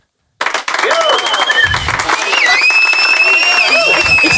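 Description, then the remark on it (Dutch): A loud burst of applause and cheering from a crowd, dense clapping with whoops and whistles rising over it, starting abruptly and sustained throughout. “ik vind dat absoluut een, een daverend applaus waard.”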